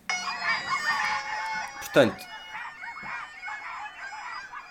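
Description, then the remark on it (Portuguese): People imitate chickens with bursts of clucking and crowing, a loud squawk standing out partway through, while a voice briefly speaks in the background. “São pessoas a imitar galinhas.”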